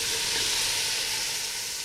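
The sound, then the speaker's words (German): Steady, bright sizzling of red wine reducing in a hot cooking pot, a continuous crackling hiss with a faint low simmer beneath, fairly loud and without any voices. “Den Rotwein lassen wir jetzt einkochen und dann den wir mit Sud aufgießen.”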